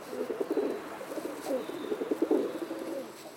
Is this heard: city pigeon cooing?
yes